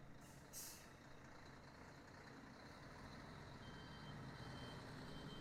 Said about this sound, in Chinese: 一直有大卡车经过。